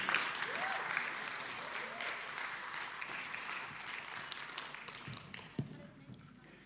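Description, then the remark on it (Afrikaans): An audience applauds a team one morning with dense, crackling hand claps that hold strong for several seconds, then thin out and fade toward the end, with a few murmuring voices underneath. “Kan ons vir hierdie span 'n lekker hande klap gee?”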